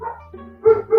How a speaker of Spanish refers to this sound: Perdón por mis perros.